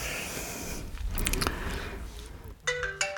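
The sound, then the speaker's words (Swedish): A telephone starts ringing near the end with an expected incoming call, a bright tonal ring with steady harmonic notes, after a stretch of scratchy, crunching handling noise. No one speaks. “Ja, där ringde han.”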